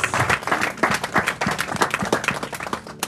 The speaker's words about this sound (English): Somebody clap for Jesus. clap